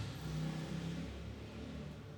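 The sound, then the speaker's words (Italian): A motorcycle engine revs as it passes along the street below the speaker's home, loud and throaty at first, then its drone gradually eases as it moves off. No voices. “Non ho dovuto comprare una moto, queste sono le moto che passano sotto casa mia”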